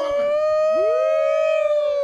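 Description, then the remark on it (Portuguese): A long, sustained wolf howl, loud, holding a steady pitch for about two seconds with a brief upward glide partway through, heard on its own. “Ó, lobo! Né? facilito com o lobo”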